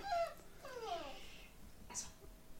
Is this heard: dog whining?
yes